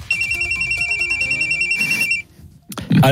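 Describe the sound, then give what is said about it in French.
A telephone rings out on an outgoing call to Hervé Renard, a steady repeating high-pitched ringback tone pulsing evenly for about two seconds, then a pause and a burst of noise as the line connects. “Et on a envie d'appeler Hervé Renard, lui qui a failli reprendre cette équipe, pour savoir comment il a vécu cette qualification.”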